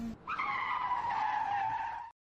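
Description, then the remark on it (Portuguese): Car tires screech loudly against the road under hard braking, a sustained high-pitched squeal lasting about two seconds before cutting off abruptly. “Os pneus rangem contra a estrada.”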